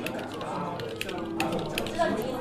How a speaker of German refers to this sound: klappt sie ihren Laptop auf, lockt sich in das WLAN ein, öffnet die Suchmaschine und tippt den Namen Isaac Grossman